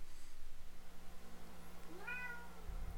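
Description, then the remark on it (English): A single cat meow rises and falls near the end, a short harmonic call over a low steady hum, not loud, with no talking. “The cat knows.”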